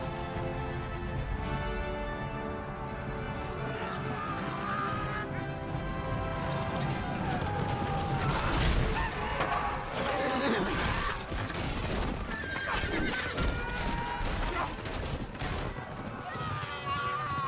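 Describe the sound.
Horses gallop and neigh amid a loud, dense battle din, depicting the charge of the army of Rohan, with crashing impacts and sustained orchestral tones layered over the charge throughout, and voices shouting beneath it.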